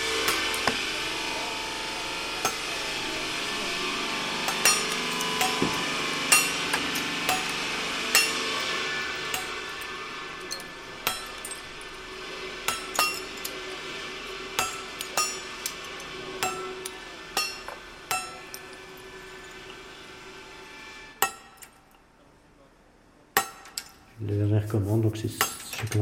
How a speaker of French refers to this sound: On cogne la pierre avec le marteau pour, voir si elle sonne bien, s'il n'y a pas une fissure, quand on taille.